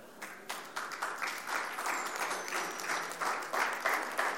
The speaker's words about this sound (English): I, I, I didn't mean to pull an applause. I just I just was jokingly.